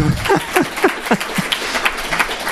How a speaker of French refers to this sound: Merci aussi, et vous, oui, vous pouvez les applaudir parce qu'elles